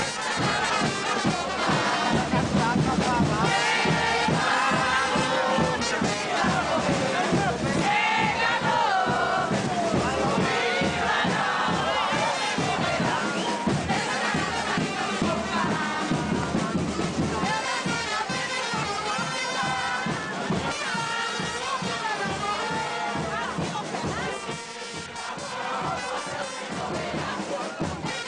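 Vila Nova supporters chant and cheer nonstop in 2008, the club's centenary, coming down the slopes of Nova Lima with the club's traditional charanga band on the club's anniversary; many voices sing together in a loud, dense, festive, carnival-like roar that stays strong, easing only slightly near the end.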